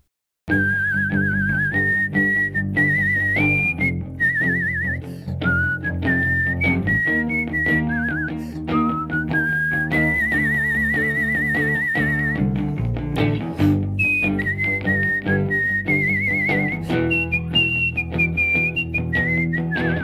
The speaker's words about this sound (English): And aside from being a form of communication, it's also a beautiful art form, and people have been competitively whistling for over 40 years now. Take a listen to this clip from a world champion.